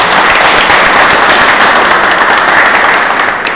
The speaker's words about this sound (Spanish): Y bueno, nos despedimos, queremos darte muchas gracias por haber venido. Eh, un aplauso.